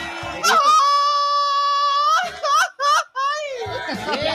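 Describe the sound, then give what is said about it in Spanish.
A loud Mexican grito: one long, high, steady wailing shout that breaks into a few choppy yelping bursts and a wavering trill at the end, with no other sounds around it. “Y el grito.”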